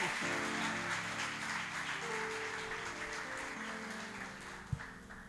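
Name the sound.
audience applauding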